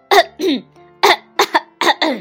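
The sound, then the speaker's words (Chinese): A human voice imitates a crow solemnly clearing its throat: a string of about seven rough, raspy hacking bursts in short pairs, fairly loud, with brief pauses between them and no words spoken. “乌鸦郑重其事地清了清嗓子”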